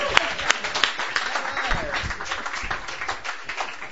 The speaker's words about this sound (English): who I think we should just give you a round of applause just for your shirt there.